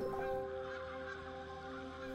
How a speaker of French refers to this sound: Vous franchissez ce nuage et vous voilà face à ce qui crée cette ombre, là, au-dessus de vous, au cœur de ce ciel bleu. Des oies sauvages qui font parade.